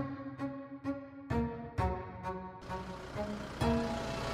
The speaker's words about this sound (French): est sur son tracteur.